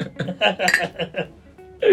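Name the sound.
glasses clinking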